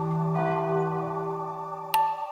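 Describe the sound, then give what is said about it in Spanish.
A large bell hums with a long, ringing resonance, then is struck again near the end with a sharp, bright clang. Church bells tolling, fairly loud, with no voices. “una tarde se volvió loco de coraje porque alguien tocó las campanas de la iglesia cuando no era hora.”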